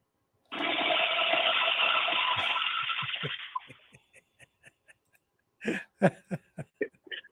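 A toilet flushes with a loud, steady rushing roar for about three seconds, then drains away, followed by bursts of laughter close by.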